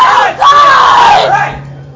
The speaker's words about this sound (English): she yelled at you. Yes, she did.